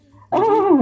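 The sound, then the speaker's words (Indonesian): A voice imitates the weak horn of a Scorpio motorcycle with a nasal, droning hum that starts abruptly and holds steady for about half a second, fairly loud, with no other sounds around it. “emang saat itu motor gue yang Scorpio itu klaksonnya lagi kayak tipes kayak mm.”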